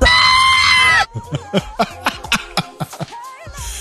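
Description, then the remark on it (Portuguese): A loud, shrill mock scream by a person, lasting about a second, cut off abruptly and followed by a string of short, rhythmic bursts like playful chuckling. “Não, Grito.”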